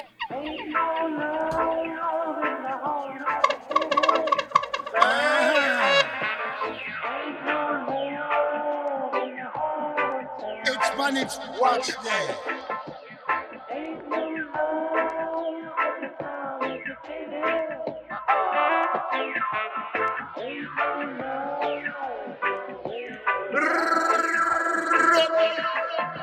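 A 2-minute-40 reggae track by a veteran Jamaican deejay plays steadily and loudly, with a chanted, warbling vocal riding over a dense backing and occasional bright effect bursts.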